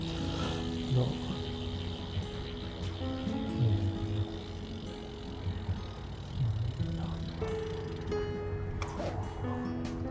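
A four-speed Brompton folding bicycle being ridden: a steady whir of chain and gears with a ticking freewheel ratchet, continuous over the whole stretch against faint outdoor rumble.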